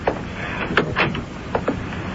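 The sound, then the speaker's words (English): A library door is pushed shut with a handful of short wooden clunks and thuds spread over a couple of seconds, moderately loud, with no voices. “Come into the library and shut the door behind you.”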